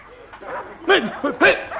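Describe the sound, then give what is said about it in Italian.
A dog barks twice in quick succession, loud, the sharp yaps separated by a brief pause, with quieter murmuring sounds before and between them. “ma di chi è quel gatto? Ferma! Via! Fiocco! Qui!”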